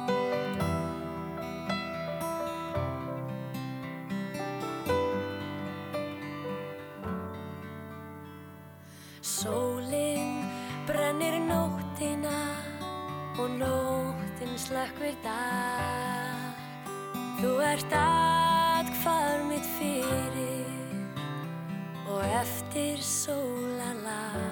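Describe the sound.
A recorded Icelandic popular ballad: a solo voice sings a gentle, flowing melody over full instrumental backing, with a brief dip before the arrangement swells fuller and louder.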